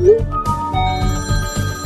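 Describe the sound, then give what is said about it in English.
A telephone rings with a rapid, repeating electronic trill, pulsing about four times a second at a bright, steady pitch. It is loud and plays alone, with no one speaking. “Prefer to use your phone the old school way?”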